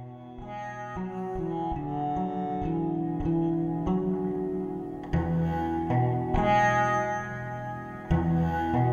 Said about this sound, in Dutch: de lier zelf alleen klinkt ook zeer mooi. We zullen tien secondjes luisteren naar dat.